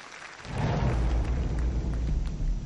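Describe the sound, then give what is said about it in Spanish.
A crowd bursts into applause, a dense steady wash of many hands clapping that swells in quickly and keeps going at full strength to the end, with no voices over it. “La gente aplaudiendo y no sabe ni lo que ha visto.”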